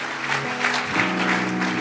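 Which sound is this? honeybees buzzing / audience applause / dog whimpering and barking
audience applause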